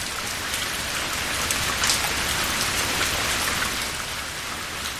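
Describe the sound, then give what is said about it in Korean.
Steady autumn rain falls throughout, a dense, even hiss of drops striking surfaces, with no voices or other sounds breaking the continuous downpour. “가을비가 내리는 그곳에 저만 남기고 그 아이는 떠나가 버렸습니다.”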